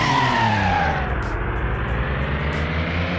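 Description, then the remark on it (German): A racing video game car's tires skid and squeal continuously for a few seconds, loud, with the engine droning beneath, as it brakes and slides through a hairpin turn. “Also Bremsen ist halt beim Klassik nicht besonders gut.”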